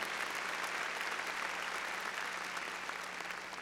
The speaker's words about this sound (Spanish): a ver, démosle palmas fuertes, hermano al Señor, aquí.